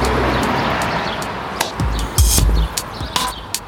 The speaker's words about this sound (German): Aber können wir irgendwas anderes machen außer klatschen